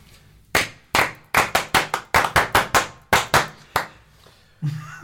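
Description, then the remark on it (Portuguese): A series of about fourteen sharp hand claps in a deliberate rhythm, grouped in quick bursts with short pauses between them, loud and without speech: the ritual clapping that teams do before an improv match begins. “antes uh, do jogo começar, havia sempre este ritual das equipas baterem as palmas, uh, e então as palmas são da seguinte maneira, com o seguinte ritmo.”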